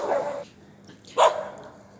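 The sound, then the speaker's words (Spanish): Dogs bark outdoors by a sidewalk, two short bursts about a second apart, fairly loud, with a quiet gap of background between them. “Uy, uy, perros, perros.”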